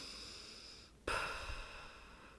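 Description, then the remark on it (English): Someone imitates a man's puffed exhale forced out through his mouth with lips closed, not snoring and not rhythmic: a single abrupt, breathy burst after a brief hush, fading gradually over the next second with no talking. “through his mouth with his lips closed and it's the worst thing. So it's mm-hmm. not snoring, it's not rhythmic”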